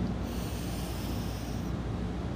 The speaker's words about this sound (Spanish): Y vamos a conectar con nuestra respiración. Vamos a comenzar a inhalar